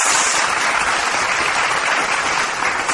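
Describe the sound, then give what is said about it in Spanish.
Loud, sustained applause for a band, a jazz band at the Lounge, fills the whole three seconds, a dense wash of many hands clapping at once with no pauses and no voices standing out. “me gusta, me gusta, me gusta ese aplauso fuerte para, el … de aquí de Lounge.”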